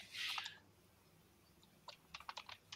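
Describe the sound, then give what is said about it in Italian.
Keyboard typing as someone writes a message in a chat: a burst of clicks at the start, a pause, then a quick irregular run of sharp keystrokes. The sound is fairly quiet, with no voices. “Si sente un remore di tastiera clicking, secondo me.”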